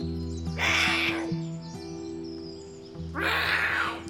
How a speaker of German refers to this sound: Die Rufe der Wildkatze klingen anders als die der Hauskatze.